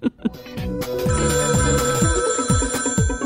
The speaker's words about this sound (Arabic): هاتف ايام اللولو التاريخي